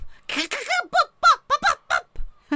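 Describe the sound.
A grandmother's voice imitates a wood pigeon's call, a rhythmic series of about eight hooting, cooing syllables with swooping pitch, each short and evenly paced over a couple of seconds.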